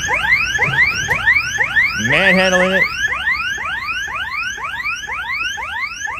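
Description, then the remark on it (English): The electronic alarm of a delivery robot that has been knocked over wails continuously in rapid rising sweeps, loud, with a brief voice cutting in partway through. “Somebody knocks it over. Oh my god. Going off an alarm.”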